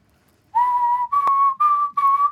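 A clear whistled tune of four sustained notes, each pure and steady, with a brief gap and a faint click between phrases, and no talking, recorded as a part for a music track.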